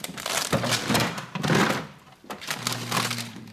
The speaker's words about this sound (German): Ähm, ja, du hast die Packung jetzt äh, hier schon auf den Tisch gestellt,